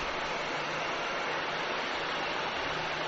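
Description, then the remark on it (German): A helicopter lifts off again behind the commentators at an American football game, a loud, steady whooshing roar with a faint low engine hum underneath, unbroken for the whole moment with no voices. “Währenddessen hebt der Hubschrauber hinter uns wieder ab. Deshalb ist es jetzt wieder laut.”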